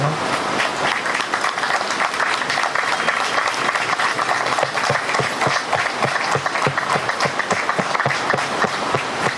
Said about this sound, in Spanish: Bueno, será por finalizado el acto y no sé, me gustaría que nos den un aplauso